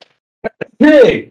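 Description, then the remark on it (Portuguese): A single loud sneeze: two quick sharp inhales, then an explosive voiced burst that trails off over about half a second. “toda vez que alguém espirrava, eu falava saúde”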